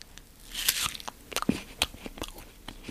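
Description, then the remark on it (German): A close, crisp crunch as someone bites into an apple, followed by a run of sharp, irregular crunching and chewing clicks with no talking. “Also, ich mache jetzt ein Geräusch und ihr dürft raten, was das für ein Apfelknacken ist.”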